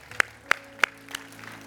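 Applause just beginning in a church audience, given for Jesus: four sharp, evenly spaced claps ring out over a faint low hum, with no voices.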